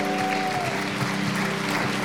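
An audience applauds steadily, a dense wash of clapping hands that holds at an even, fairly loud level throughout, with a faint sustained tone running beneath it.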